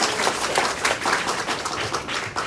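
An audience breaks into steady applause, a dense wash of many hands clapping at once that stays at a constant, fairly loud level throughout, with no voices on top.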